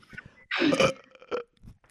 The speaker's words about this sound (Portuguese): Vai sair um arroto.